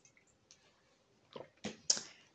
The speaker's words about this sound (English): hold on, let me take a sip of my water.